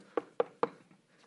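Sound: knock on a door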